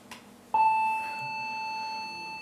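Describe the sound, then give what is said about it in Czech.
A steady, high-pitched electronic tone switches on abruptly after a brief quiet moment and holds at an even, moderately loud level until the end, with no talking over it. “Uh, no tak zkusíme si vygenerovat dvojnásobnou frekvenci. Vidíte, že se to zahustilo. Jo? Vejde se jich tam tentokrát už 880 těch vln za sekundu.”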